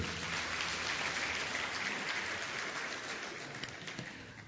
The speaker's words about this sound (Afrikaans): Geef vir die orkes 'n lekker hande klap toe.